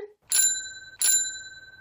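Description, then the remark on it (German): Two crisp rings of a bicycle bell, each a bright metallic ding with a lingering shimmering tone, about three quarters of a second apart, clear with no talking. “Nach jedem Beitrag hört ihr die Fahrradklingel.”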